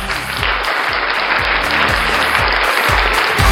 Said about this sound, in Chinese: 他提供的这稀稀拉拉的掌声， 嗯，是够用了都，那再再来一次，